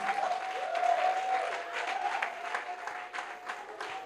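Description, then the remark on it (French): A church audience acclaiming the Lord claps and cheers steadily throughout, with dense overlapping applause and a sustained high-pitched whoop or whistle carrying over the noise. “Si réellement tu as été béni, tu pouvais acclamer plus fort le Seigneur.”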